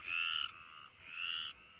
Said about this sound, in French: les chants des petites grenouilles arboricoles, vertes aux yeux d'or, les chants des rainettes. Rauques étaient les voix des rainettes le soir, là où l'eau du bassin coulant sans bruit brillait dans l'herbe.